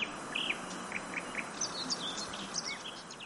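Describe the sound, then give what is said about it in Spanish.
Quiet open-air mountain ambience at Valspitz near Grindelwald in the Alps, just after the bus has departed: scattered high bird chirps and short calls over a soft, steady background hiss, with no voices. “y esto es lo que se oye una vez el autobús ya ha partido.”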